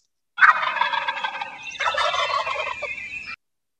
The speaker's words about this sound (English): Turkeys. That's right. We got some turkeys.